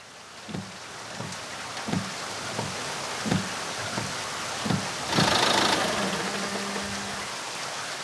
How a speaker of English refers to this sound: I'll start my old Ford and be over as fast as it can coast there. It's mostly downhill.